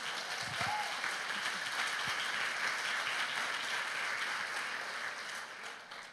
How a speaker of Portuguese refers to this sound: Você pode aplaudir o Senhor nessa noite?